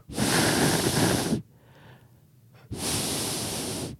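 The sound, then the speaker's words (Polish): Someone voices two loud, breathy whooshing hisses, each lasting over a second with a short pause between, imitating the rushing whistle of feathers set into the wooden frame of a Polish hussar's wing. “Przecież w hałasie pola bitwy, świst piórek powbijanych w drewienko nie miałby szansy się przebić.”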